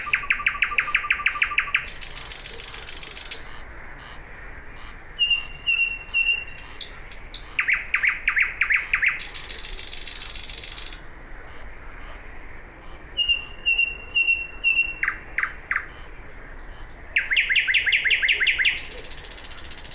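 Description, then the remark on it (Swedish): Loud, exotic-sounding bird song made of repeated bursts of rapid, buzzy chattering trills and sharp whistled notes, varied and jumbled rather than melodic, continuing throughout with no talking. “Det är en spektakulär sångare. Den sjunger högt. Den har ett läte som låter lite exotiskt sådär och lätt att reagera på, men, men är det särskilt vackert?”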